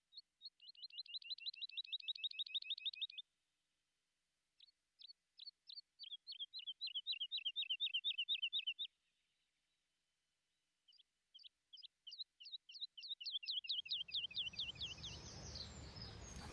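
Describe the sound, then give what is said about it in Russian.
Bright, rapid trilling song of a skylark in three bursts of quick repeated chirps with short pauses between, clear, and a rough rushing noise rising at the very end. “пока ты слушаешь пение и представляешь полет жаворонка”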